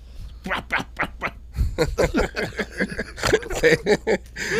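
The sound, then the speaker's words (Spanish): Someone imitates wet sucking and slurping with their mouth, a quick run of gurgly, smacking bursts that blend into snickering laughter. “¿Así sonaba? No, así, estás chupa chupa.”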